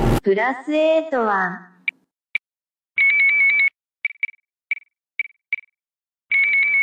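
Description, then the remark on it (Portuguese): A Brazilian electronic voting machine (urna eletrônica) beeps: sharp, high single beeps at irregular intervals and two longer, warbling confirmation tones, all fairly loud, following a brief voice at the start. “Ouvi esse som tão peculiar da nossa democracia pela primeira vez quando fui mesário em outubro de 1996, ano da implantação das urnas eletrônicas no Brasil.”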